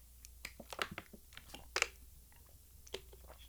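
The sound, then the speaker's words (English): Someone takes a sip of water from a water bottle: a quiet, irregular run of small wet clicks, smacks and gulps with a couple of sharper taps, no talking. “I'm gonna i I'm gonna take a sip of water.”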